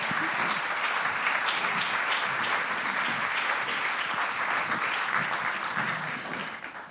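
Sustained applause of thanks from an audience for a speaker and her translator, a dense steady patter of many hands clapping at once, fairly loud throughout and beginning to fade only at the very end.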